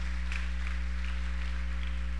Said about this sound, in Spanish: Déselo al Señor ese aplauso.